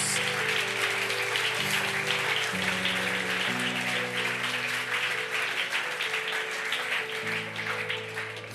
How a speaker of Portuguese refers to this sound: Pode aplaudir Jesus.